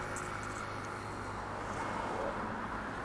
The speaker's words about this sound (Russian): Данный подкаст я записываю на улицу, как можно, наверное, понять по шумам э, проезжающих машин.